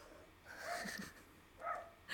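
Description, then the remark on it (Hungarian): A dog named Maki barks outside, faint, in a few drawn-out bursts separated by short pauses, with another starting at the very end. “Maki megint ugat kint.”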